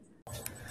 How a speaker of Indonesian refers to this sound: nih ceritanya kita buka Adegan okay. buka botol, adegan buka botol boleh.